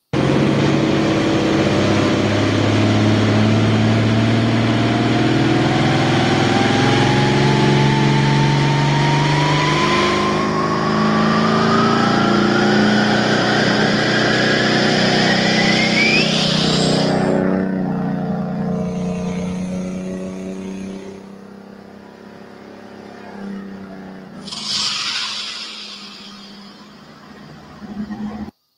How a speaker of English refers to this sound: This was cool. Her her tractor on the dyno. This was fun.